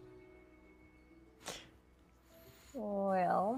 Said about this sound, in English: That's a cat.